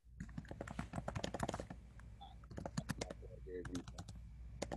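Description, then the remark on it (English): Rapid, uneven clicking of keys on a computer keyboard, picked up by an open microphone, fairly loud, in bursts with brief pauses, over a low steady background hum. “You gotta mute your mic you're typing.”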